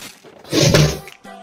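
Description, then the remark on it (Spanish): A heavy, muffled thud of someone falling, one loud impact with a brief rumbling crash, followed by a short faint voice-like hum after a moment of quiet. “Eh, alguien se cayó.”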